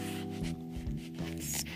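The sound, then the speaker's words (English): Thin Bible pages rustle and crinkle, several quick brushing flicks in a row as pages are turned to find a scripture, over a low steady hum with no talking. “Sorry for the paper, for the, the Bible rattling.”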